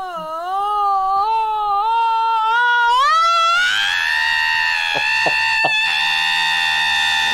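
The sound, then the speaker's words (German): A screaming alarm clock: a loud, shrill, voice-like wail that wavers, climbs in pitch, then holds a harsh sustained scream broken by a few brief clicks, with no talking. “Schreiende Wecker”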